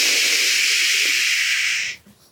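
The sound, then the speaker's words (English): A voice imitates the sharp, sustained hiss of a flintlock rifle's flash in the pan after the hammer hit the frizzen, with the powder failing to ignite the charge in the barrel; a steady airy "shhh" lasting about two seconds before cutting off abruptly, fairly loud. “And uh, whenever I pulled the trigger on this absolutely huge bear, I heard the hammer hit the frizzen, and there was this. Sh-”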